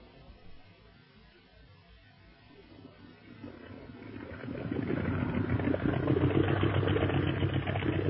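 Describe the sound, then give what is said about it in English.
A speedboat engine, the boat going about 50 miles an hour, starts as a low rumble, then swells into a loud, steady roar that holds through the last few seconds, alone with no voices. “Gee, this is a swell boat, Lee Ying. How fast are we going? Oh, I should say about 50 miles an hour, Speed.”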